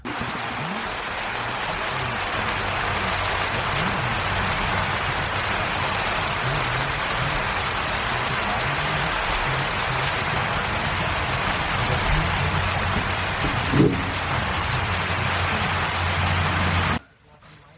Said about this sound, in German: Wir haben einen kleinen, kleinen Regenschauer gehabt.